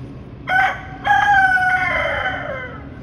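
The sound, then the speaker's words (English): A rooster crows loudly: a short opening note, then a long, drawn-out cock-a-doodle-doo that slides downward and fades, with no one talking. “And so she decides to post a video of the rooster”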